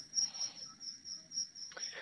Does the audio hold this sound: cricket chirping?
yes